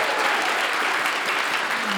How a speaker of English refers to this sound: Let's give it a round of applause, everybody. Hooray!